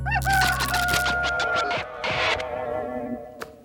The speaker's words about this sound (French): Ah bah hier on parlait d'oiseaux, faites le coq. On pourrait tous faire le coq.